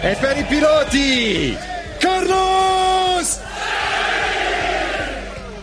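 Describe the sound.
A large crowd of Ferrari tifosi chants the name of Ferrari driver Carlos Sainz in long, drawn-out unison shouts, two loud swelling calls in a row, then dissolves into sustained cheering and roaring noise.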